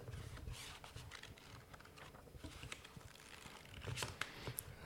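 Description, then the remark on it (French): Magazine pages rustle and flick in a steady run of short, dry crackles and soft swishes, fairly quiet, with no voices over them. “Ça, ce sont des pages hypersensibles.”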